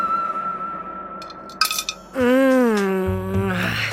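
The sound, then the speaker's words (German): A large euro coin drops into a piggy bank and clinks briefly against metal, a couple of quick taps, followed by a loud, sustained warbling electronic moan. “Eine schöne große Euro-Münze. Mm, sau lecker. So, jetzt noch ein paar Cents hinterher.”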